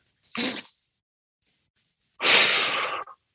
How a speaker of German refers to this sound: Man atmet zweimal die normale Länge durch die Nase ein, also so.